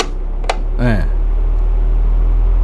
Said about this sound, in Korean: 선풍기 회전하는 소리. 네, 이 소리가, 이게 근데 변별력이 있을까 모르겠는데, 여러분들 잘 들어주셔야 됩니다.